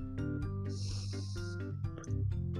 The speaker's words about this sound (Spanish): Bueno, primero que acabo de, ¿cómo se llama? De disimular un bostezo.